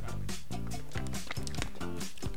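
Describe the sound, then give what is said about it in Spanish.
A person gulps down water in a steady rhythm, about five loud, wet swallows with throaty sounds between them. “Que estoy tomando agua, maldita sea.”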